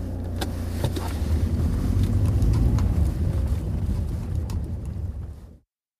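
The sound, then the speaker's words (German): The engine of an old Jeep off-road vehicle is started and rumbles steadily, with occasional clicks and rattles over the low drone, then cuts off abruptly after about five seconds. “Er verstaute sein Gepäck im Kofferraum, legte seinen dicken Wintermantel auf den Beifahrersitz und startete den Wagen.”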